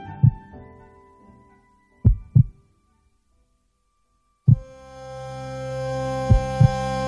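Heartbeats recorded in 1933 by Doctor Miguel de Iriarte on slate discs used in cardiology classes, heard as deep, muffled lub-dub double thumps roughly every two seconds, over a faint tonal hum that swells into a steady, buzzing drone halfway through.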